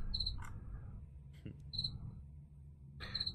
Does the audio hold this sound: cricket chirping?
yes